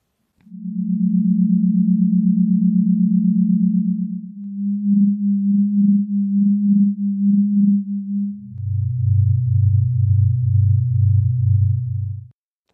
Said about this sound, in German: Ja, ich, ich glaube, die, die erste Zeile von deinem Science Haiku war schon eindeutig. Es geht nämlich um seismische Wellen in Sternen, oder?